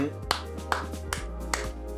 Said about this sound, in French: Et donc euh, bravo à eux. on applaudit. Pareil, félicitations.